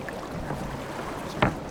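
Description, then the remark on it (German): Water laps steadily around a small boat, then a single sharp knock near the end as an Austrian police officer steps aboard; no voices, just the low wash of the water. “Mein Kollege kommt jetzt zu Ihnen an Bord.”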